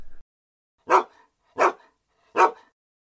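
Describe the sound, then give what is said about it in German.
A person imitates a hunting dog's highly excited yelping bark while hunting: three sharp, evenly spaced yips, fairly loud, with a short noise at the start and silence between them. “das ist das Jiffeln, das jagdlich erregte Belllauen, äh, Bell, Bellen oder sowas.”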